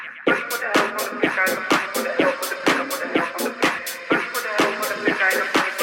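A Dutch rap track, currently popular in the Netherlands, plays loud, with punchy regular drum hits and a steady beat under dense musical layers, no talking over it.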